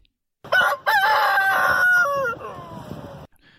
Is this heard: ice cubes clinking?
no